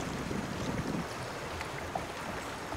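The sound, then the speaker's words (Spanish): Steady rushing of a crystal-clear river flowing past a raft during a rafting trip, a continuous wash of current with a slightly fuller gurgle near the start and no voices. “Me encanta este viaje en balsa y disfrutar de la corriente del río cristalino y de los verdes paisajes.”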